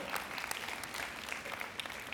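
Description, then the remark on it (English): Steady applause from an audience, many hands clapping at once in a dense, continuous patter at moderate volume, with no voices standing out above it. “And here's the thing while you're clapping”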